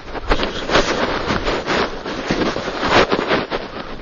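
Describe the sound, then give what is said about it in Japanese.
Muffled wind buffeting an IC recorder hidden inside a scarf during a walk around a pond, a steady rough rumble with gusty surges rising and falling throughout, fairly loud and with no voices. “今ねマフラーの中にね IC レコーダーをね、えー、仕込んでね録音してるんですけど風の音入ってるでしょうねきっとね苦しいと思いますがご勘弁を。”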